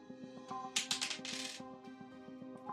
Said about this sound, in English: So first off, I need you to roll any dice. On odds, you pick option one. On uh, evens, you pick option two.